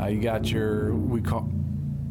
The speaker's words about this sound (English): we call that a motorcycle. That's a motorcycle guy. Yeah. that was a different one though.